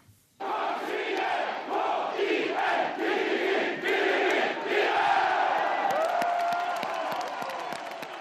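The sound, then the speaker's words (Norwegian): Football fans in Kongsvinger celebrating overnight after their first-division club reached its first-ever cup final in football by beating Strømsgodset 2-1 away in the semifinal: a loud crowd chanting and cheering in rhythmic surges, with shouts and whoops rising over the steady roar and a high whistle near the end. “I Kongsvinger har det vært feiring i natt etter at førstedivisjonsklubben i går kveld eh, tok eh, seg til sin aller første cupfinale i fotball.”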